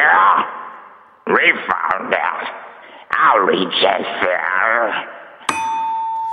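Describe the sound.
A voice sings through a heavy echo effect added by a sound engineer, each phrase trailing off into a smeared reverberant tail, before a bright, steady electronic tone cuts in at the end.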